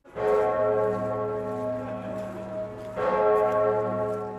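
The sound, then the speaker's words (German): A deep, heavy church bell tolls twice, about three seconds apart, each strike loud with a long, rich humming resonance sustaining between them; it is the Pummerin, the largest bell of St. Stephen's Cathedral in Passau, Germany, weighing almost eight tonnes. “Wie groß mag diese Glocke sein, fragen sich häufig die Touristen auf dem Passauer Domplatz, wenn sie den tiefen und schweren Klang der größten Glocke des Stephansdoms zum ersten Mal hören.”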